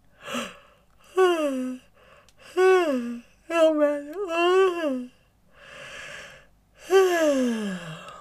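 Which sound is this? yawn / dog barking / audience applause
yawn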